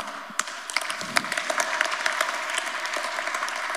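A crowd at a church service applauds steadily, many hands clapping in a dense, continuous patter with a few sharper claps standing out, moderately loud throughout.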